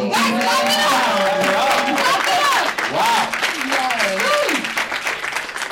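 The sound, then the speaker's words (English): A crowd applauds loudly and steadily for several seconds, a dense wash of clapping with voices calling and cheering over it throughout. “Guys, Clap it up!”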